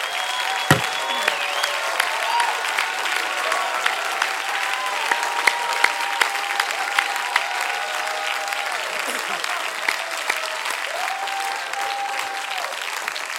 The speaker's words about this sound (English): That's why I say again today, oh, clap your hands. Oh, you people, shout unto God with a voice of triumph.